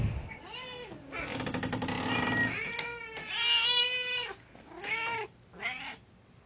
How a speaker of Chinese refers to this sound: 通常我回家，两只猫猫都会疯狂的叫，因为它们想要吃晚餐